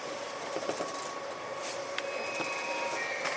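Steady mechanical hum of a JR 323 series commuter train in motion on a Momodani-to-Momodani run, approaching Morinomiya station, with a constant tonal whine and occasional clicks and rattles over the running noise, heard from inside the car at moderate level.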